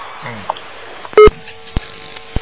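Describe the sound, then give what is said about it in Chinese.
A telephone for a radio call-in programme sounds with a single short, loud electronic tone, followed by a couple of sharp clicks over a faint murmur of background noise. “好，那么听众朋友们，哎呀，电话还在不停的响，那么时间到了，这节目只能结束了。”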